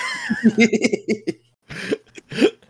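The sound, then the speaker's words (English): A person sputters and chokes after sipping water, with a strained, laugh-like catch, followed by two harsh, separate coughs. “Oh, I should not have sipped my water there.”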